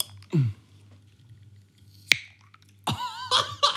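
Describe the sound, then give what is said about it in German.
A drink bottle of black tea cracks open with one sharp snap, followed by a burst of squeaky, rustling handling noise. “Keine Flasche knackt so geil wie Punika”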